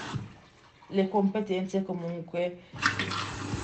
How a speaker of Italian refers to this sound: scusa il rumore della lavatrice